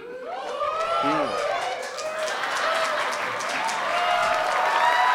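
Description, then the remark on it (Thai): A large crowd cheers and claps steadily and loudly after the speaker asks them to make noise, with scattered whoops and shouted voices rising over continuous applause that swells slightly toward the end. “ทุกคนอยากรู้ไหมครับว่า 5 ข้อนั้นคืออะไร ถ้าอยากรู้ผมขอเสียงหน่อยครับ”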